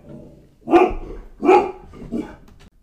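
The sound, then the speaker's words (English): A dog barks three times in quick succession at the doorbell rung by a package delivery, loud, each bark sharp and full before a slightly softer third one, with no one talking. “Sorry for that barking interlude, but Amazon just rang our doorbell.”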